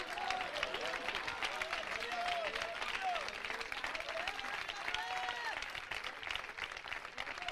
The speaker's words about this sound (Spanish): ¿Y qué será que el pueblo hoy no se entristece, hermanos? Parece que no se oye. Mire, oiga esos aplausos.